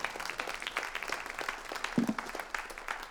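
An audience bursts into sustained applause, many hands clapping in a dense, steady patter that holds at a fairly even level for the whole stretch.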